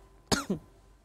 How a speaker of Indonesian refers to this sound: saya juga hampir batuk-batuk nih, silakan.